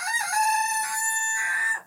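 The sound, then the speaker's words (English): A rooster crows once, a loud, sustained cock-a-doodle-doo lasting nearly two seconds with a bright, strained, rising-and-falling tone, heard on its own without talking. “Floofs McGee knows I'm right. That's what he's saying. I speak chicken.”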